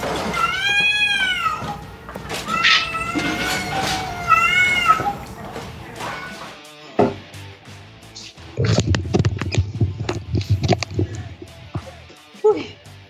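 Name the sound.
cat meowing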